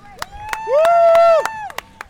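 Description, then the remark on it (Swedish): A few sharp, spaced claps ring out while a single voice lets out a long, rising and falling whoop, imitating a cheering crowd at a running race rather than a real audience. “Så det, kom igen nu publiken! Härligt! Vifta med flaggorna där ja!”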